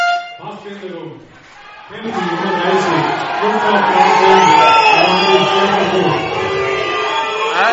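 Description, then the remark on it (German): An agitated American football stadium crowd, upset after a pass interference play, shouting and bellowing in a loud, sustained roar, with overlapping voices rising after a brief lull and individual yells cutting through the din. “das, das, das Publikum ist aufgebracht, aber es ist nachvollziehbar.”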